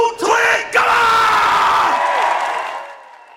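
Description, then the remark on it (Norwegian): A studio audience in the Senkveld studio bursts into loud cheering and whooping, with clapping blended into a dense crowd roar that holds steady for a few seconds before fading out. “og så er det litt applaus og sånn da, fra publikum”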